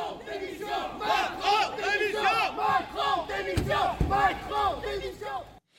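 A crowd of angry protesters outside the prefecture of Haute-Loire, France, in the evening shouts and jeers loudly and continuously at the president, many voices overlapping in rising and falling chant-like bursts, with a sharp thump partway through.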